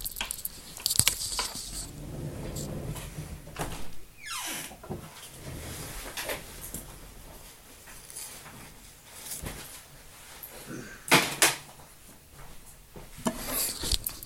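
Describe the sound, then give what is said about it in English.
A door is handled: a creaking swing, scattered knocks and rattles, then a couple of louder clunks as it shuts, with no one speaking. “Alright, I'm gonna have to leave that door cracked so that thing can come in and out.”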